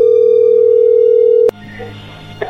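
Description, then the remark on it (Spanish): A telephone call-connecting tone: a loud, steady mid-pitched hum holds for about a second and a half, then cuts off abruptly with a click, leaving faint line noise behind. “Ahí entró la llamada, llégale.”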